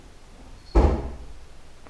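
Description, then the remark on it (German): A single dull thump of a cat landing after jumping down from a cupboard: one heavy, bassy impact that fades over about half a second, with quiet surroundings and no talking. “Jetzt ist eine Katze von Schrank gesprungen.”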